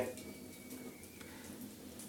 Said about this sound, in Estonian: ja ainsaks eri ja heliefektiks, mida te kuulete tänases osas, ongi lõkkepragin.